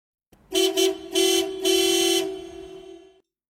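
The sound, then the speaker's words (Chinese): A recorded car horn, played back through a loudspeaker, honks loudly, holding a steady buzzing tone for almost three seconds while it swells in four quick, harsh blasts before fading out. No one speaks. “我这儿录出来了一个汽车的喇叭声呀，它实际上是，当然这个汽车喇叭声它还比较那个什么一些。”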